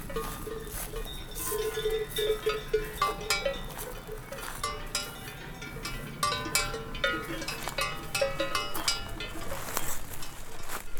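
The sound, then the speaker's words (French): Many livestock bells clank and jingle continuously on a summer mountain pasture, an irregular overlapping clatter of bells as animals move, with no voices. “tout plein de choses, les sonailles, les bruits de neige, des sons parfois insolites”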